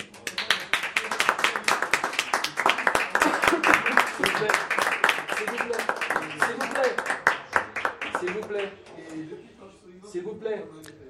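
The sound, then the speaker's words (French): An audience applauds musicians after they play Weber's Quintet Opus 34 live at the Bedford: dense, steady clapping that holds strong for about eight seconds, then thins out into scattered claps as faint voices emerge and the applause dies away. “pour nous jouer ce soir en live et rien que pour nous au Bedford, du Weber, son quintet opus 34, on les applaudit.”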